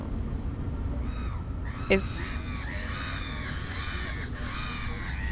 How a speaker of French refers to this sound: Putain, les mouettes. J'adore les mouettes.